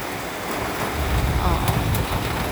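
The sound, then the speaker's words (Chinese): Strong wind from Typhoon Haikui passing over Taiwan, heard at an open window with potted plants shaking, roars in a steady, dense rush with a deep low rumble, swelling slightly partway through, with no break or pause. “风非常巨大哦！”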